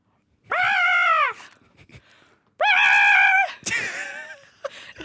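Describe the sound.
On a radio show, a person imitates a seagull in a points game, with two loud, drawn-out, harmonic squawking calls, followed by a shorter descending cry and some faint laughter or breathy noises between them.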